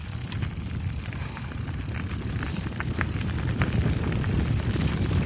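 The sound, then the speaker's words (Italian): Steady rushing wind buffets the microphone over a low rumble of tyres on the road as a bicycle coasts fast downhill, the roar growing slightly louder toward the end. “spero sentiate nonostante la discesa.”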